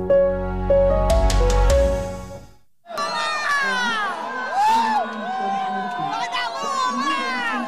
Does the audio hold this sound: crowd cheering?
yes